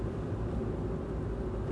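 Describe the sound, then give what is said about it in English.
Steady, low rumbling road noise fills the cabin of a car driving south toward Oregon, a constant drone with no voices and no change in level over the short stretch. “I am currently in the car, making my way down south.”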